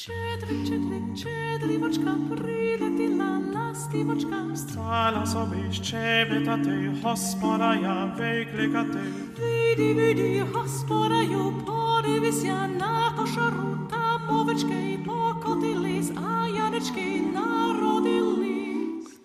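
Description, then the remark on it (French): A Ukrainian Christmas carol melody plays steadily for the whole stretch, rich layered harmonies moving in repeating phrases at an even, fairly loud level, with no talking over it. “ce chant est bien ukrainien”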